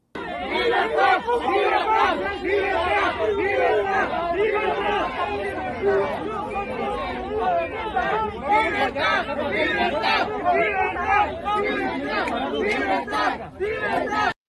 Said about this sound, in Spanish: PAN en compañía del presidente de la Comisión Mexicana de Derechos Humanos, gritándole a los hermanos cubanos que se regresen a su isla.